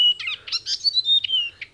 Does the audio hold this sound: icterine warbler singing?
yes